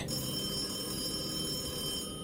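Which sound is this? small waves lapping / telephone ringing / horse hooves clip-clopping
telephone ringing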